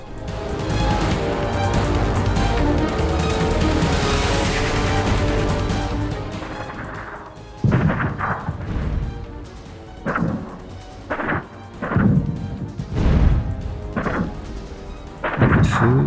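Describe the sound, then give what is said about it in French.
A dense, roaring wall of machine-gun fire fills the first six seconds, then gives way to a series of heavy, muffled explosions and bursts arriving irregularly, loud, with no voices. “mitrailleuses, explosions étouffées, les forces spéciales étaient maintenant au contact de l'ennemi, et les tunnels sécurisés voyaient défiler commando sur commando.”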